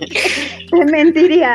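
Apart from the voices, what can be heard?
sneeze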